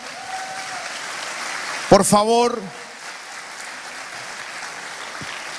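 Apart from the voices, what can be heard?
audience applauding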